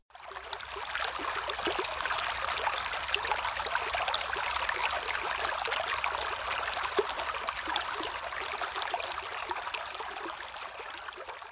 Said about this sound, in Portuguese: Esse barulho que estamos escutando é um rio pequeno, mas que corre bem ligeiro. Você consegue imaginar um riozinho cheio de pedras no fundo e que faz a água se mexer em muitas direções? Pois esse rio é assim mesmo.